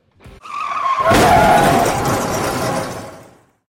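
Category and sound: sound effect, car skidding sound effect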